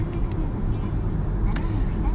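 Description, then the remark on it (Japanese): Steady low road rumble from inside a car being driven to Shinshiro city, a constant drone with faint higher hiss, continuous and fairly loud throughout with no distinct events. “ちょっとモーニングに間に合わない可能性が出てきましてですね、えー、急遽車で向かっておりますはい”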